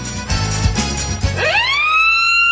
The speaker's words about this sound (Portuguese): Olha o apito da firma, menino, bora provar que é melhor que trabalhar.